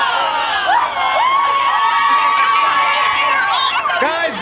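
A big crowd from Orlando cheers loudly and steadily, a dense wash of overlapping shouts, whoops and high-pitched yells with no pause for the whole stretch.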